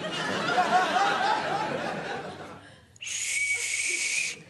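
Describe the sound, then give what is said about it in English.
Laughter and chatter fill the first few seconds, then a quiet pause, followed by one loud, shrill blast of a rape whistle held steadily for about a second and a half. “I just put one on my rape whistle.”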